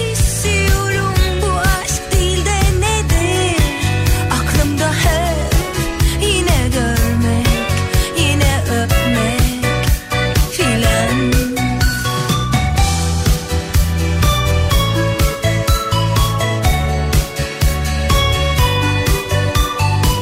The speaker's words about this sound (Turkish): Müzik